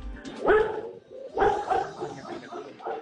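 Dogs bark nearby in short, loud bursts: two strong barks about a second apart, followed by softer, scattered yaps over a faint background.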